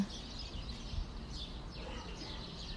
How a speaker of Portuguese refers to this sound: Só se ouvem pássaros.